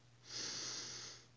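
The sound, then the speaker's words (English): A single slow, deep inhale through the nose, a soft airy rush that swells and holds for about a second before fading, with a faint steady hum underneath. “Another deep breath, breathing in,”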